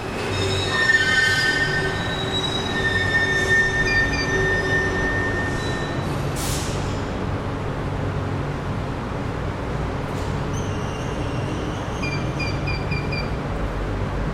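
Metro station ambience with a train running through, its wheels squealing in high, drawn-out tones over a steady low rumble that fills the whole stretch; no one speaks.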